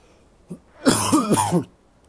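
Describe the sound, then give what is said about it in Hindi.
A short throat clearing: a small catch, then a rough, gravelly rasp with a few harsh pulses lasting under a second, with no one speaking. “खांसी वासी ठीक कर लीजिए थोड़ी पर आपको मज़ा तो ज़रूर आएगा”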